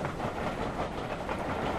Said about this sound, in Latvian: Tāpat kā pie električkas. Māja dreb, kad skrien garām, pagaidām retāk, bet uz māju ik pa desmit minūtēm. Un it kā pierunāts elektriskais vilciens aiznesas uz Rīgas pusi.